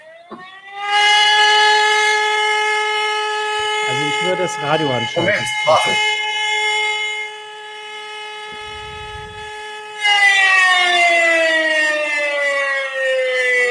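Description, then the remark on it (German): A loud civil defense warning siren signal from the Bavarian Interior Ministry, repeated at least three times, sounds a steady, sustained tone, then swells again after a brief dip in pitch, while people talk briefly over it. “kannst du das mit den Sirenen noch mal kurz einfach erklären, wozu die da sind?”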